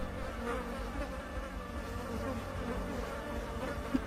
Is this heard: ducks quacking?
no